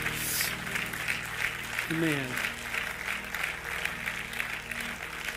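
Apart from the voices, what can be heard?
audience clapping hands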